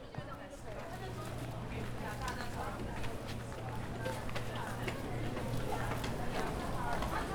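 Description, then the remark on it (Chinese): Many people's footsteps at a train station just after the escalator, a mix of brisk steps and dragging, shuffling feet, tap irregularly over a steady low hum and a constant murmur of indistinct voices. “你可以观察一下每个人脚步声，真的都蛮有意思的。”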